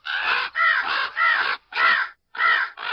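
Crows caw loudly, about six harsh, raspy calls in a steady series with brief gaps between them, and no voices.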